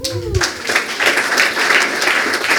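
An audience breaks into sustained applause for Jesus after a prayer, a dense wash of many hands clapping steadily and loudly throughout, with a brief burst of voice or cheering at the very start.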